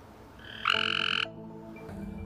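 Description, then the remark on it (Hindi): A male gray tree frog gives a single loud, harmonic mating call to attract females. The call lasts about half a second and stands out clearly over quiet background noise, with no talking. “ऐसी सिग्नलिंग हमें काफ़ी सारे एनिमल्स में देखने को मिलती है जैसे मेल ग्रेटरी फ्रॉग्स फीमेल्स को अट्रैक्ट करने के लिए एक आवाज़ निकालते हैं”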